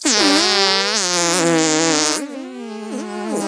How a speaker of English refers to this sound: Elephants fart. Mice fart. All animals with intestines and anuses fart.